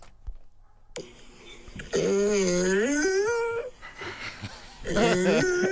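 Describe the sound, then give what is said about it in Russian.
A dog whimpers and then breaks into a long, wavering howl that rises and falls in pitch, loud, followed by a brief pause and another short whining cry. “Вот, э, дать послушать на, на нормальную собаку.”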